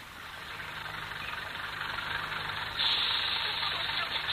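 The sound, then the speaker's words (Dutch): A bus engine idles with a steady, broad rumble and hiss, holding fairly loud throughout, growing slightly louder near the end. The bus comes from the northern part of the city. No one speaks. “Deze bus komt uit het noordelijke gedeelte van de stad.”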